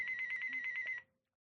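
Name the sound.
telephone ringing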